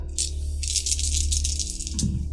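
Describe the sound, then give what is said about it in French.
A handful of dice, rolled to work out damage, clatter and rattle continuously for about two seconds, a dense, busy shaking and rolling sound, ending with a final knock as they settle. “J'ai beaucoup de dés.”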